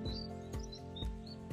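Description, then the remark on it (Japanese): Birds chirp faintly at a ski resort in Niigata, Japan, in summer: a handful of short, high tweets scattered irregularly over a low outdoor rumble, with a few soft thumps and no one speaking. “えー、聞こえますかね鳥の声が聞こえてますが、最高の環境の中で、えー、今日は配信させていただいております。”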